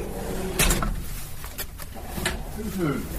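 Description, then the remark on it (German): An automatic prison door mechanism clanks and slides open, with several sharp metallic clunks and a hiss of movement, while faint voices murmur in the background. “Die Tür geht auch automatisch, da brauchen wir nichts machen.”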